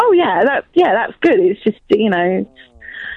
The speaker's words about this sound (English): stomach rumbled